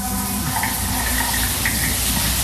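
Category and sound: household object, running shower water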